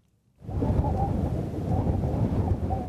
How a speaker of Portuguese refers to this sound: Do alto do ponto de vigia da Crastainha, no coração do Pinhal do Rei, o vento continua a soprar forte, mas já não se vêem as cinzas nem o negro da madeira queimada.